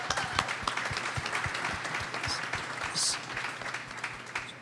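An audience applauds steadily, many hands clapping in a dense, continuous patter that holds at a fairly even level throughout, with a brief brighter burst of clapping near the end.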